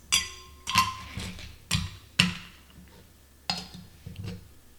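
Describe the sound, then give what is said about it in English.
Several hard, bright clinks and clatters arrive in irregular bursts as ice cubes are dropped one or two at a time into a metal shaker while a cocktail of lime juice, lemon juice and simple syrup is being made, with no one speaking. “And now I'm adding ice.”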